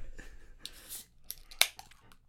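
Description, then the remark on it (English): A cold beer can cracked open: a few soft scraping, hissy rustles, then one sharp, bright metallic snap followed by a brief fizz, with no talking. “I just cracked open a cold one with the boys.”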